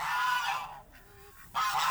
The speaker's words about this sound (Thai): ไปเก็บไข่ไก่มาฝากครับเกือบโดนไก่จิก